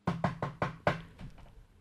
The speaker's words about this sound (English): There was a knock on the door just at that moment.